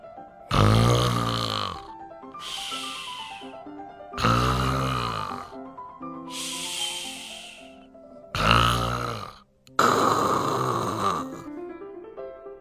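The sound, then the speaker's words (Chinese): Loud, rhythmic snoring from someone asleep in a guest-room bed: about six rasping snores in steady succession, alternating deep, throaty rumbles with breathier, hissing breaths, with no talking. “他的脸很胖，睡觉的时候还打呼。”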